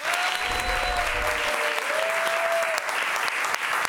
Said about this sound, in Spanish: ¿Otro aplauso? ¡Otro aplauso!